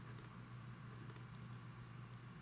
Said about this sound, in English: Rolling dice.